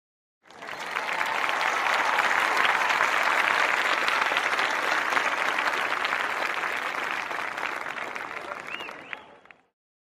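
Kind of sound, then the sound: crowd, applause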